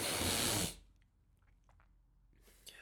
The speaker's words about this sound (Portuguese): Aí eu vou ter de beber água. Eu estou sempre a ficar com cenas na garganta, que irritante!